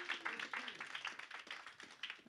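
An audience at the stand-up comedy show Stand Up on the Spot applauds with steady, dense clapping that crackles evenly throughout, fairly faint overall, with no voices on top.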